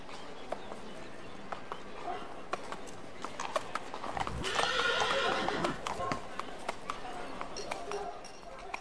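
A horse's hooves clip-clop in a steady, uneven rhythm of sharp knocks, with a brief louder rush of noise in the middle of the passage.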